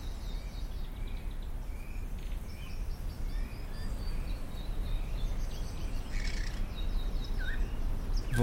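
bird, birds singing

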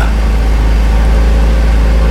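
vehicle, car engine accelerating

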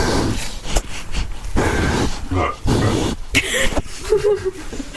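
animal, pigs grunting

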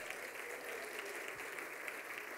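crowd, audience applauding

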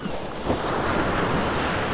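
nature, ocean waves and surf

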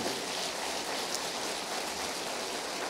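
crowd, audience applause

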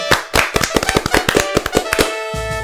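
crowd, applause

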